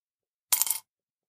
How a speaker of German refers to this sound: Es wird mal wieder auch mal wieder Zeit für dich, einen kleinen Obolus in unser Glas zu werfen.